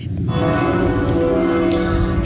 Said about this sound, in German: wir meinten auch gerade hier auf dem Dorfplatz, ja, die Kirchenglocken ist so schönes, schönes Läuten, die Glocken klingen so schön. Und jetzt sehen wir aber, es scheint eine Beerdigung zu sein, ja, da ist ein Sarg.